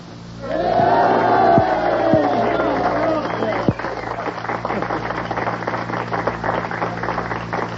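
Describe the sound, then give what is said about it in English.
A loud crowd cheers and shouts, with voices rising in excited yells over the first few seconds before settling into a steady, dense roar of many people. “I mean, uh, love and uh, cheering.”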